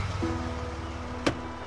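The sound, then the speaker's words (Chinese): A small truck's engine rumbles low and steady as it comes to a stop by a small bridge near a camphor tree over a hundred years old, on a rainy day. A thin mechanical hum sets in, then a single sharp click sounds near the end. No one speaks. “现在，停下小卡车。”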